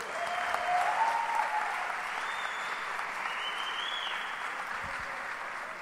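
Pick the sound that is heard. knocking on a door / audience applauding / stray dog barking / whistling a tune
audience applauding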